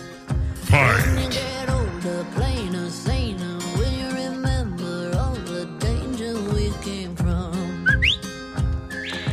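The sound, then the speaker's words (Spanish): A whistled melody rides over a steady, pulsing beat in a recorded song, the whistle bright, with a quick upward-sliding whistle near the end. “Por eso me gusta esta canción porque me chiflan como el perro que soy.”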